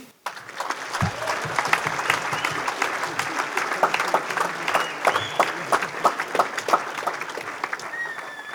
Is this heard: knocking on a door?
no